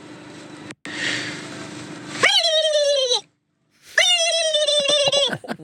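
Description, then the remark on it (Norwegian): A person imitates a turkey gobble with two bursts of warbling, stacked-harmonic voice, the first a falling wavering call, the second a longer trembling gobble after a short pause, preceded by breathy noise. “Jeg føler at min kalkunlyd er litt sånn autentisk, hvis du kan kalle det det.”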